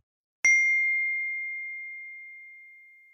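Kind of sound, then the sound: household object, glasses clinking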